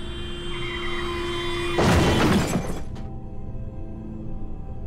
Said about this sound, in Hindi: गाड़ी उस औरत से इतनी ज़ोर से टकराई के तीनों की मौके पर ही मौत हो गई